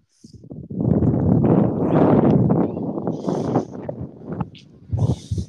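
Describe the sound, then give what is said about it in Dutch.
Loud, rumbling wind buffets the microphone in continuous low gusts during an outdoor football match, with brief higher whooshes near the end; no one speaks. “Het waait weer, dus je hoort het misschien op de radio.”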